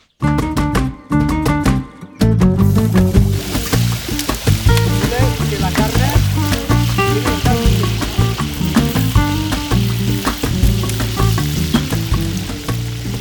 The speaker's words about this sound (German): Oh Gott, riecht das gut. Das Feuer und der leichte Rauch, der entsteht, ist irgendwie eins geworden mit dieser saftig vor sich hin blubbernden Pfanne.